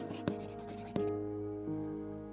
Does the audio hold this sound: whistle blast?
no